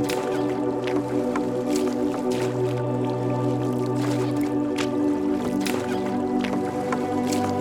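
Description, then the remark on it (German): Oars of a rowing boat dip and splash in lake water at an uneven pace, several wet sloshes over a steady low droning hum, with no one speaking; the boat is on a lake near Mount Fuji in Japan. “Ich rudere und du darfst einfach nur den Berg ansehen.”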